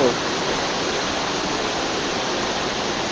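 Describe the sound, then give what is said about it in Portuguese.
Heavy rain pours down outside a house on a rainy afternoon in a dense, unbroken hiss, steady and fairly loud throughout, with only a faint hint of a voice at the very start. “Chuva do lado de fora. E do lado de dentro de casa também.”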